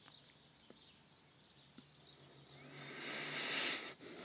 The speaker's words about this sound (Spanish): Qué bonito se escuchan los pajaritos.